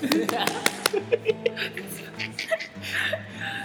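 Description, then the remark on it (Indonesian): A handful of sharp hand claps ring out near the start as an applause sound effect, followed by softer rhythmic taps while people chuckle and talk throughout. “Tepuk tangan, Pak ntar ada efeknya”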